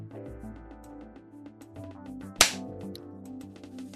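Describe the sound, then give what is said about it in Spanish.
A single sharp hand clap rings out over a steady musical background, loud and close, with a quick decaying tail. “Pensaba que había que dar una palmada para sincronizarnos, perdonad.”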